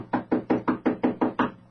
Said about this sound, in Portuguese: Eduardo bateu à porta do quarto dos pais.